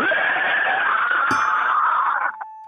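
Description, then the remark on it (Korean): A person loudly imitates a squealing pig being dragged, done once more as an attempt in a prize game on a broadcast show, one long, strained, high-pitched shriek held for about two seconds before it breaks off. “그러면 돼지 한 번 더 끌려갈게요.”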